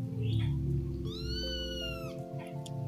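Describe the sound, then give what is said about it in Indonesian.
A kitten, abandoned on a cold night, gives one drawn-out, high meow that rises and then falls over a steady low hum. Nobody speaks. “Si anak kucing kembali meong-meong.”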